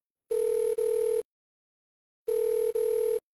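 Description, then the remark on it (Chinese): Outgoing-call ringback tone: two paired buzzy electronic rings, each a quick double burst with a steady mid pitch, separated by about a second of silence. No voices. “选择性的无视了这个信息，打通了小李的电话。”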